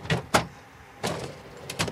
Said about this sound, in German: Er geht zu einem Regal und öffnet eine der vielen Schubladen. Darin ein großer Klumpen von rohem Kautschuk.